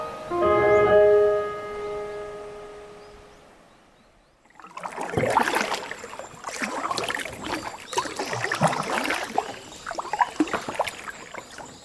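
A sustained tonal chord fades out, then kayak paddle strokes splash and swish through water in an irregular, steady rhythm during a kayak trip, with no one speaking.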